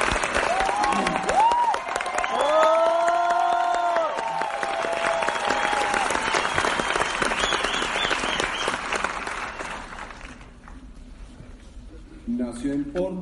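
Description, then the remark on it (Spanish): A crowd bursts into loud, sustained applause with some whoops mixed in, clapping steadily for about ten seconds before thinning out and fading near the end. “El aplauso para por favor.”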